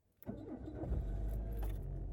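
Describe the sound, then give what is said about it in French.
A car engine turns over after a brief silence and settles into a steady, low rumble that continues to the end, with no voices, as a car is driven on the commute from work to home. “Vous savez ce que ça veut dire Trajet, pour le coup, travail maison.”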